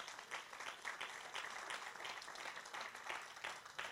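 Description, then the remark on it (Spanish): An audience applauds the Lord, many hands clapping in a dense, continuous wash of bright smacks that holds at an even level for several seconds without any speech. “un aplauso al Señor en esta hora.”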